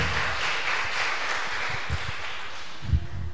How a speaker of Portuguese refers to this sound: Pode aplaudir ao Senhor também, você que está na sua casa.